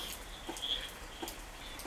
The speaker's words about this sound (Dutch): Ik was buiten op ons balkon gaan zitten. En het is ineens keihard beginnen regenen.